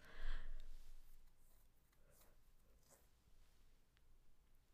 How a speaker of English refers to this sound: Hmm. sorry, y'all, mid yawn.